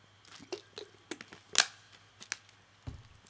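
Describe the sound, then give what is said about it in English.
Someone drinks water: a run of quiet gulps and wet mouth clicks, with one sharper swallow in the middle and a low steady hum underneath. No one speaks. “I'm sorry, I got some more water.”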